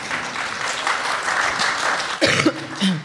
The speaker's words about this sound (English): I, I love you for that smattering of applause.